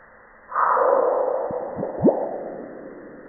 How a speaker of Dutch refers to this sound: Ja, dat was het merkwaardige geluid van een meteoriet die op Mars stort.